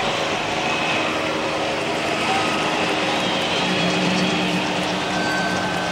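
A helicopter flies overhead, flying people in because cars are blocking the road, its loud, steady engine roar layered with a rapid rotor chop that continues without letup. No one speaks.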